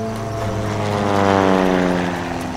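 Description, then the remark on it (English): A propeller airplane on a flight to Manaus, Brazil, drones steadily and fairly loud, its buzzing engine tone rising slightly in pitch as it passes, with no voices over the sound. “The mission began with a flight to a city called Manaus.”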